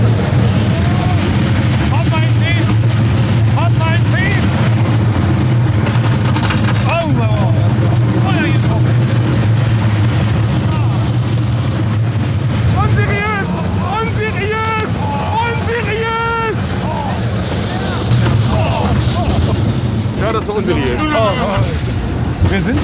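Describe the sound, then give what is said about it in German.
A roller coaster rumbles steadily through a loop with heavy wind noise buffeting the microphone, while riders' excited voices and cries rise over the roar midway through the ride. “Wie ein Looping hat sie angefangen.”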